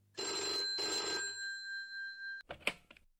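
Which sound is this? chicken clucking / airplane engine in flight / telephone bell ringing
telephone bell ringing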